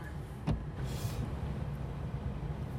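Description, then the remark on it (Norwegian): A car engine turns over with a sharp click and a brief whoosh, then settles into a low, steady rumble. No one speaks. “Bilen startet, og veien tilbake er sånn noenlunde klar.”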